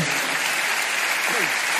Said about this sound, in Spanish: ¿Cuántos pueden decir amén? O sea que puedes dar un aplauso al Señor.